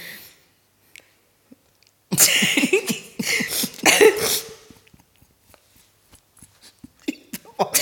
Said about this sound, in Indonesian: udah batuk, udah cukup ya.